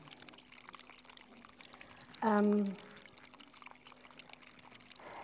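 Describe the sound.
Water splashes and trickles steadily throughout at a low, even level, with a brief hesitant vocal sound from a person partway through.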